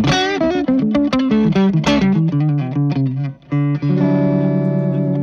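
An electric guitar with its pickup volume rolled back slightly plays a run of clear, sustained notes and chords with a slightly warm, fatter, rounded tone, steady, ending on a held chord with no talking.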